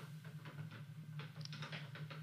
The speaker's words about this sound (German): Und gerade bei so einem Wetter, ich weiß nicht, ob du das hörst, draußen prasselt Schneeregen, prasselt der Regen, die Regentropfen hörst du hier an meine Scheibe und Fensterbank klopfen.